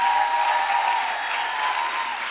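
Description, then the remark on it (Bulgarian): An audience claps steadily, a dense, continuous wash of applause at fairly strong volume that holds evenly for a couple of seconds with no voices on top. “О, хайде, ако ръкопляскаш, ръкопляскаш, като че наистина вярваш.”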